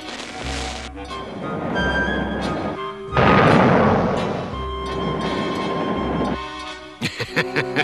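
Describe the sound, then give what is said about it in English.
A train roars along the tracks in a dense, loud rumble with a sustained horn-like tone, surging louder midway, then ending in a quick series of rhythmic clacks. No one speaks. “You can't let that train crash, but you can't save it without revealing your real identity.”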